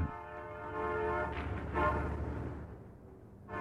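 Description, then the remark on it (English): A train horn sounds a steady, sustained hoot over a low rumble of rolling wheels as the train approaches the seaside station of Little Point, then fades as hissing, clattering train noise takes over; moderately loud, with no voices. “The train hooted”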